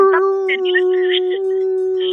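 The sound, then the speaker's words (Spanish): A person imitates a wolf howl: one loud, steady, sustained vocal tone held for about two seconds, with faint breathy noise and murmurs in the background. “el lobo.”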